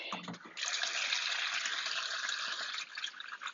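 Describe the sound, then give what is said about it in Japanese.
Water pours steadily from a watering can onto a potted plant with withered leaves that had gone long without water, a continuous splashing hiss after a brief lower clatter at the start, with some water spilling and trickling toward the end. “じゃあ、よし。もう6月、やばい、ぜ全然あげてなかった。申し訳ない。そりゃ葉っぱも枯れるよね。あ、こぼれた。”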